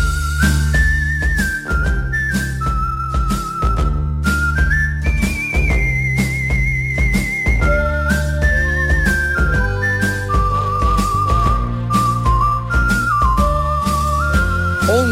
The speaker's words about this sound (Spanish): Ojo a esta música que suena y a este silbido porque eh, lo van a escuchar cada viernes cuando llegue las 11 de la mañana.